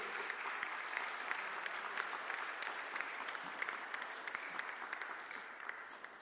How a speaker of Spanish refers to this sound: Gloria a Dios. Dan un aplauso a Jesús.